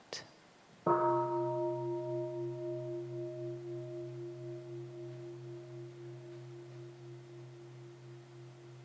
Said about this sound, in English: when we hear the sound of the bell, we, uh, we train to come back to our breath.